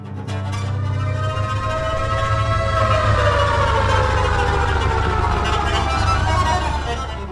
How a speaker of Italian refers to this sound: Nel bel mezzo della notte, una sirena squarcia la tranquillità della città il suono della paura, l'unico pensiero adesso.